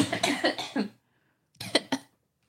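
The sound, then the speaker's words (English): A person who has lost their voice and has had a cough for about a month coughs in two separate bursts: a rough cluster of hacking coughs, a brief pause of silence, then a second shorter round of two or three coughs. “I'm going to cough.”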